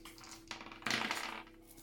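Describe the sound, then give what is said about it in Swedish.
Three dice are rolled during a tabletop role-playing game, clattering and rattling in a quick burst of small hard clicks that swells for about half a second, then settles into softer ticking, with no talking. “Då får ni ta och slå tre tärningar var och se om ni lyckas smyga.”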